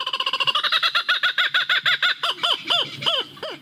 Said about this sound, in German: Ins Kinderlied hat er es geschafft, der Kookaburra. Bekannt ist der australische Rieseneisvogel auch als lachender Hans, denn seine Rufe, die klingen so.